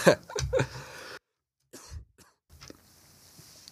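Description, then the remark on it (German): A person with a cold coughs a couple of times, rough bursts followed by a quieter throaty sound and brief silence, then faint background noise. “Wie gesagt, er ist ziemlich erkältet und hustet ab und an.”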